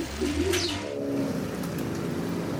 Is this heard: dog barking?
no